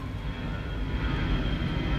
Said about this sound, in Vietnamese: có một chiếc máy bay đi ngang qua âm thanh các bạn vừa mới nghe đó là một cái gì đó một cái âm thanh gắn liền với bản thân mình sắp tròn 21 năm à